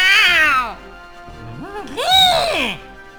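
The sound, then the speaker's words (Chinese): A person imitates a cat, trying for the fiercest cat cry possible, giving a loud, strained meow that slides downward, then after a short pause a longer, wavering meow that rises and falls, both high-pitched and nasal. “爷爷咬着牙，再度弯着腰，发出他所能想象的。最有气势的猫叫，喵！”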